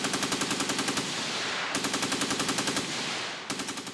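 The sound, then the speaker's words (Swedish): Rapid bursts of automatic fire from Maxim machine guns, loud, with a steady rattling rhythm broken by brief pauses between three long volleys and no voices, as colonial troops fire on counterattacking Herero warriors. “i den traditionella koloniala krigsföringens tecken blev de krigare som sprang till motattack mötta av de roterande piperna på The Maxim Guns.”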